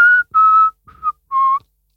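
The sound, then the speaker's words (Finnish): Someone whistles a short TV show theme tune, the Dr. Phil theme: four clear, sustained notes with brief gaps between them, the pitch shifting slightly from note to note, with no talking. “Mä vihelsin sen.”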